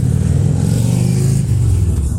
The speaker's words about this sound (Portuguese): Ó o ronco dos motores.